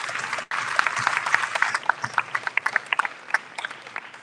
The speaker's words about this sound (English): To you, we give you the applause and you know, big round of applause. Thank you.